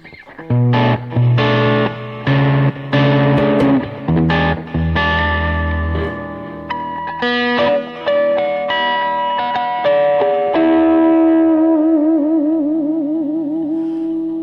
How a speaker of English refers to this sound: I'm playing. This is a Kramer that I, I threw together. It's a, uh, an actual uh, pacer neck from the 80s. Kramer Focus 1000 body. My first real guitar. FU Tone Bridge